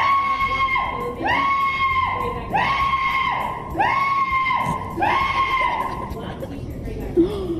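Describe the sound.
A human voice imitates an Aztec death whistle: four long, shrill, piercing screeches in steady succession, each swooping up sharply and holding a harsh, loud wail before cutting off.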